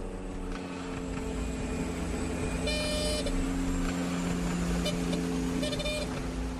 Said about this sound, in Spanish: La señal de alarma en la cabina del piloto nos recuerda que el aterrizaje en el diminuto aeródromo de Taplejún nunca está falto de emociones.